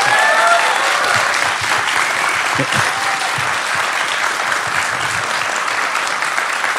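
A sustained burst of audience applause, dense steady clapping from many hands that holds at an even loud level throughout, with a few faint whistles or cheers near the start.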